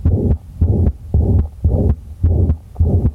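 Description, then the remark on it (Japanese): An infant's heartbeat with a pulmonary artery blood flow murmur, often heard at infant checkups and resembling a pulmonary valve stenosis murmur: a soft whooshing murmur filling each beat, six regular pulses in a steady, fairly fast rhythm, clear with no talking. “最後に、えー、肺動脈の血流音というのもあります。これは乳児検診などでよく聞こえますが肺動脈弁狭窄のような雑音になります”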